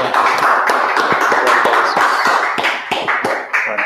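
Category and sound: crowd, audience applause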